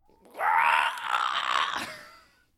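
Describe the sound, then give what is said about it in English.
A person imitates a zombie screech: one long, strained, raspy vocal cry lasting about two seconds, loud, rising then fading out, with no talking. “yeah, do a zombie screech real quick.”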